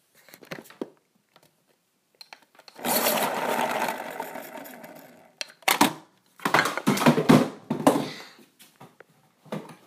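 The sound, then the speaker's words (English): An electric pencil sharpener whirs with a steady grinding buzz for a couple of seconds, then runs in several shorter, choppy bursts as the pencil is pushed in and pulled out. “gosh, guys, my pencil, my pencil sharpener is broken.”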